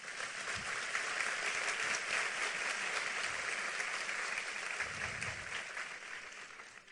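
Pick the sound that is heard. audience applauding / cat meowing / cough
audience applauding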